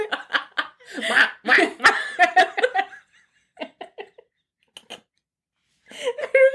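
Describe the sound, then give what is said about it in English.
Loud, smacking kiss sounds made with the mouth, repeated in quick bursts, mixed with laughter and brief pauses in between. “It's a kiss”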